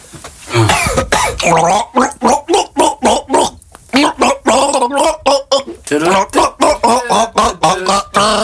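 A person gargles loudly, the bubbling throat sound pulsing in quick, rhythmic bursts with short pauses for nearly nine seconds.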